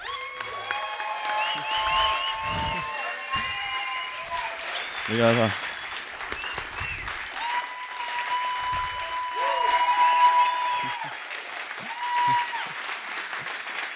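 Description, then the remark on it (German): A live audience applauds and cheers steadily for the whole stretch, dense clapping throughout, with scattered shouts and a voice or two speaking briefly over the noise, as a speaker is introduced at a live event. “Macht mal Lärm”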